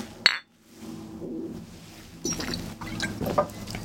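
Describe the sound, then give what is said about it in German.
A single bright clink of glasses touching in a toast rings out near the start, followed by quieter rustling and faint handling sounds; no one speaks. “Prost.”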